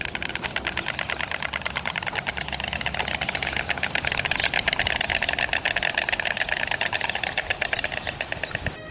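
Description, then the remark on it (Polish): A stork's bill clattering in a rapid, steady wooden rattle that runs unbroken for about nine seconds, loud and dry, with a slight swell in the middle and no voices. “Najbardziej jednak kojarzą nam się z charakterystycznym klekotaniem. Posłuchajcie sami, jak ono brzmi.”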